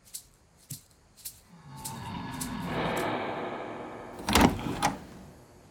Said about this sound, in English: The living room door opens, and in step the most wanted drug traffickers in the world.